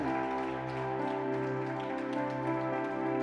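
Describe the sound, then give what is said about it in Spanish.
An audience gives applause and ovations to the King of Kings, Jesus, in a steady, dense crackle of clapping and cheering that fills the whole clip, layered over sustained, held keyboard chords. “¿Qué le parece si cerramos este tiempo con el mejor de los aplausos y ovaciones al Rey de Reyes, al único, al inmortal?”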